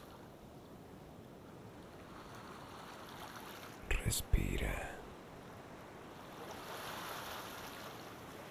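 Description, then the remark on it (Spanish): Ocean waves wash steadily onto a shore in a continuous, soft roar that swells gently toward the end, while a calm voice briefly speaks a single word partway through. “Hoy en este espacio solo existen el mar y tú en un momento de total plenitud.”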